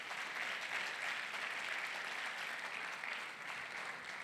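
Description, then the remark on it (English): An audience claps together in sustained, dense applause as a hand clap of praise to God after a prayer, a steady wash of many hands with no clear individual beats, holding at an even loudness throughout. “One last time, let's give God an awesome hand clap of praise.”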